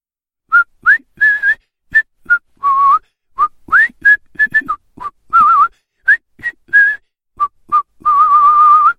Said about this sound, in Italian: e grattandosi lì, dove le spine gli hanno lasciato il segno, con gli occhi invagati, si rimette a fischiettare.